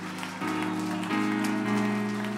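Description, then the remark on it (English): An audience gives a hand clap of praise to welcome a guest preacher, a steady, dense wash of applause heard over sustained keyboard chords that shift to new pitches every half second or so. “Come on, let's give him a good hand clap of praise.”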